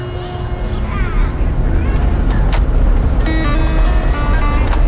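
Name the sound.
car driving through countryside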